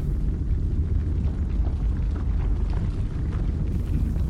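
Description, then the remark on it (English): A deep, continuous rumble of the ground pulsing with small tremors, steady and loud for the whole stretch, with faint scattered rattles and clicks of pebbles above it. No one speaks. “As you stand there, you hear pebbles around you begin to start rattling. You can feel the ground”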